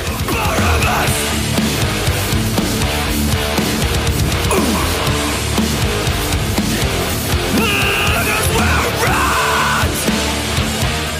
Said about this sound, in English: Kind of that older style hardcore. Listen to that chunk.